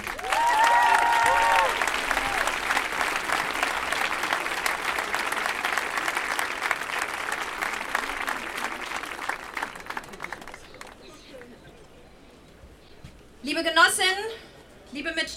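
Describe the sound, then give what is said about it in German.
An audience in Dortmund claps steadily for about ten seconds to welcome a speaker, a dense patter of many hands that gradually thins and fades out, followed by a brief moment of a voice beginning to speak. “Ein Applaus für sie bitte.”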